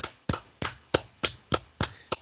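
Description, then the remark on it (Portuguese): Hand clapping, applauding the Audi team's drivers at the Dakar rally: about eight sharp, crisp claps in a steady, even rhythm, each ringing briefly, with no talking. “Então a gente tem que tirar o chapéu, devemos aplaudir de pé. Ó, eu também vou fazer isso.”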